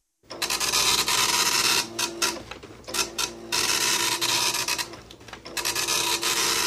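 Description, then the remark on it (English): An older printer runs continuously and loudly, its rasping, grinding mechanical noise broken by short pauses and shifts in rhythm as the print head moves back and forth. “oh wow, it's is it one of the old, it's an older printer?”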